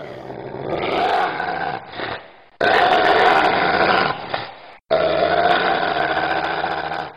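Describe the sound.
A female dog standing by a stair step growls, deep, menacing and loud, in three long, sustained stretches, each broken by a brief pause for breath.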